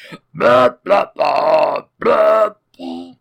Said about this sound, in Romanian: Ai început să râgâi cumva The Star Spangled Banner?